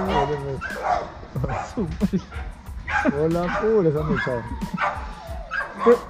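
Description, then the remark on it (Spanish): Yelps, growly barks and whines in quick, overlapping bursts like dogs scrapping, voiced by a person imitating a dog fight, with a brief spoken word at the start. “No, se pelea. Pelea perro.”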